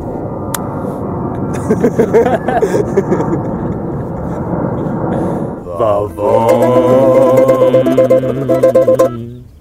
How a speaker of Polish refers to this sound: Wow, samolot! Samolot!